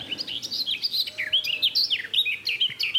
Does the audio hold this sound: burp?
no